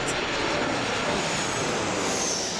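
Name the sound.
airplane engine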